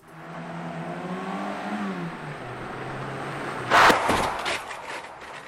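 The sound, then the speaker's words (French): A car engine hums and revs steadily, then a single loud smash as the head of a crash-test dummy posing as an e-scooter rider slams into the car at 50 km/h, in an insurer MMA crash test in Paris, followed by a brief scatter of crunching debris; the dummy is thrown just over 17 metres. “Euh, ce qui est pour moi le plus perturbant, c'est d'entendre le, fracas du crâne de la victime dans, le véhicule.”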